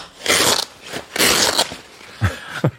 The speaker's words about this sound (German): Was ist das denn? Das ist äh, der Klettverschluss der anderen Crumpler-Tasche